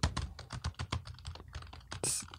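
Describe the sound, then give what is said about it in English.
Rapid typing on a computer keyboard during a Google search for a word, a quick run of crisp key clicks in an uneven rhythm, ending with a louder, broader keystroke. “a lot of typing for four letters.”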